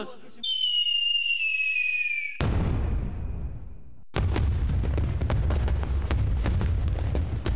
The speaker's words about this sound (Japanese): 園内の大空に綺麗な花火が上がったこのアナウンスを聞いた園内の人は安心した様子で花火を見上げ場内には拍手が沸き起こった